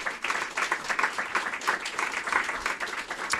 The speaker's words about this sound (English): I found that super interesting. So, can we just give them a big round of applause?